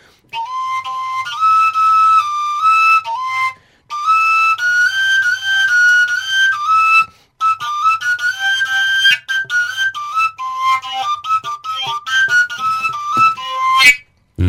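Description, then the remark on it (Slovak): A koncovka overtone flute plays a lively, breathy melody that hops between bright, whistle-like harmonics in quick phrases, with brief pauses between runs, fairly loud. “Akúkoľvek koncovku mám tu ten mech, keď chytíš, vždy ti to ukáže ten, ten veľký tón, vieš.”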